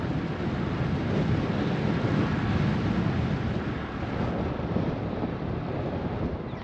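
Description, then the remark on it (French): Strong wind roars steadily across the microphone, a dense continuous rumble with gusty buffeting, loud, with no voices over it. “Le vent, le vent, le vent.”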